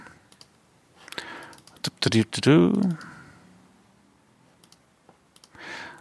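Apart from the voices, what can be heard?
clicking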